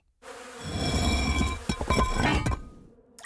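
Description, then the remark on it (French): A dense swarm of bees buzzing loudly and steadily for about three seconds, a thick droning hum with a few brief sharp clinks near the end before it cuts off. “Dieu, les abeilles sont assoiffées de vengeance!”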